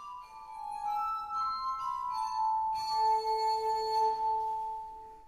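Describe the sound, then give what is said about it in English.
A glass harmonica plays slow, sustained ringing tones that overlap and blend, with a lower note swelling in partway through; the eerie, shimmering notes are clear, with no voices. “I, I, I, must remember to have a glass harmonica next time the bailiffs come to my house.”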